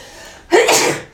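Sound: sneeze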